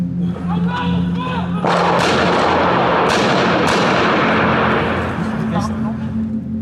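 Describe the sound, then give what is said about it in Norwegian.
Loud, irregular gunfire during the attack on Charlie Hebdo, as two masked men shouting 'Allahu akbar' shoot wildly: about five sharp cracks spaced unevenly over a dense, noisy wash, following a brief stretch of shouting voices. “De to maskerte mennene roper 'Allahu akbar', 'Allah er stor', og skyter vilt rundt seg.”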